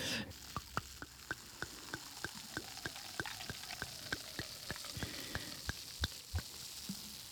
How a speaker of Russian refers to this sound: А я никогда не, не слышала, что игристое, оно вот так звучит. Как, как Блин, радостно.